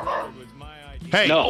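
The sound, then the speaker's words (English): Two dogs, Pepper and Scraps, bark, yip and scuffle in a sudden, loud burst, with a person briefly calling out over the commotion. “peppers, pepper and scraps are having a bit of a melee.”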